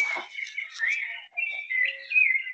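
Songbirds chirping and whistling at dawn in a steady, overlapping chorus with bright warbling phrases, moderately loud, no voices; roosters are also crowing.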